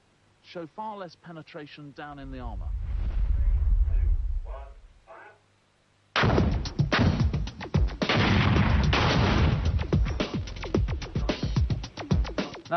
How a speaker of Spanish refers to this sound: se detonará el explosivo de alta potencia y las dos chapas se separarán. El proyectil tiene que abrirse paso entre ellas y el explosivo de alta potencia se lo impedirá y esperamos que se observe una penetración menor en el blindaje.